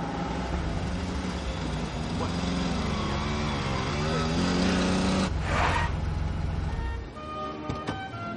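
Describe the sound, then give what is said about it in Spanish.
A luxury car's engine rumbles steadily, its pitch rising and falling as it slows, followed by a brief hiss of brakes before the motor settles and quiets as the car parks at the door of Morientes' jewellery shop. “Se cruzan con un coche de lujo que aparca en la puerta de la joyería de Morientes.”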